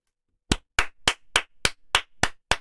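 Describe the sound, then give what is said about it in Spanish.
One person claps eight times in a quick, steady rhythm, each clap a sharp, crisp slap, with no voices. “¿Qué, yo estoy aplaudiendo aquí? yo, tengo, yo aplausos aquí, espérate, hombre, hombre.”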